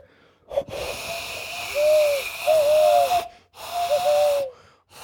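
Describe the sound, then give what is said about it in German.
Someone blows through cupped hands trying to imitate an owl hoot, producing mostly breathy, wheezy rushes of air with a faint, wavering hollow tone in two or three bursts. “Huhu, ähm, ich kann machen wie eine Eule, warte.”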